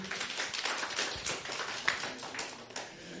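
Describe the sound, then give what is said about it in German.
Steady, fast hand clapping fills the whole stretch, a dense patter of sharp claps at moderate volume, with no talking over it; applause after a man split a log of wood with an axe. “Applaus”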